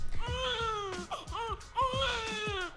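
A newborn baby cries in two long, strained wails separated by a brief gasping pause, loud and shrill with a wavering, tremulous pitch.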